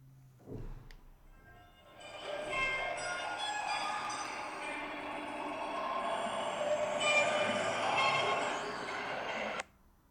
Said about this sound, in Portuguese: e há pouco tempo ligaram os sintetizadores, um artista que eu agora não sei quem, quem é que é, ligaram os sintetizadores um, a micélios, a cogumelos e, e perceberam que era esta a música que eles faziam.